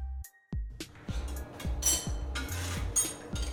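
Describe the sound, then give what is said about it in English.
Busy pizza-making in a kitchen with Bacio cheese: a steady run of dull knocks, like chopping on a board, mixed with metallic clinks of utensils and pans. No one speaks. “That's the sound of a pizza being made with delicious Bacio cheese.”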